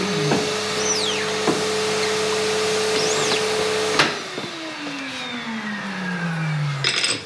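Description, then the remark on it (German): A screen printing vacuum suction table, a plate with holes that sucks the paper down, runs with a steady whooshing roar and hum, then is switched off partway through, its motor pitch sliding down as it winds to a stop. “Achso, es wird angesaugt dann. Mhm, Platte mit Löchern drin”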